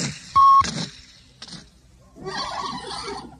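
A single short, steady mid-pitched beep from the read-along cassette of P.D. Eastman's Go, Dog Go, the page-turn signal, sounding loudly for about a quarter second amid scratchy background noise and brief rustling sounds.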